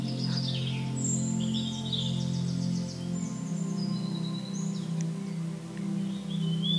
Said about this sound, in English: Everything is still. The only sounds you can hear are the chirping of the birds and the soft rush of the breeze through the treetops.